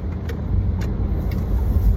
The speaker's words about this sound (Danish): Succes. Motorvej. Yay! Vi kører.